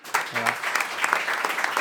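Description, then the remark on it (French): A crowd claps steadily, many hands forming a dense, continuous patter that fills the short stretch, moderately loud, with a brief low voice murmur near the start; an audience applauding the technical team at the end of a radio broadcast. “qui sont à la technique, on peut les applaudir.”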